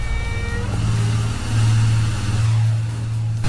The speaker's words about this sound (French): Effectivement, il y avait des bruits de tronçonneuses Et en version originale, c'est de Texas Chainsaw Massacre.